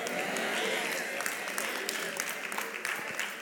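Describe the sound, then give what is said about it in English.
Scattered hand claps from an audience, a few sharp claps popping irregularly over a steady wash of crowd noise, thin and unsynchronized rather than full applause. “Come on, don't give me them little three or four little hand claps.”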